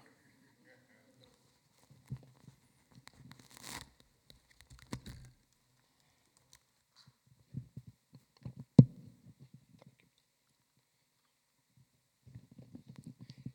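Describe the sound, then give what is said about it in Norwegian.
Irregular thumps, rustles and knocks of a microphone being handled and swapped, with scattered bumps and one sharp clunk, plus a brief bit of muffled talk at the end. “Nå tror jeg vi bytter mikrofon.”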